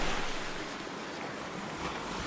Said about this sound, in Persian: آفتاب نزدیک غروب بود آب دریا بالا می آمد موج آن میخورد به کنار ساحل نور خورشید روی موجها به شکل مثلث کنگرهدار می درخشید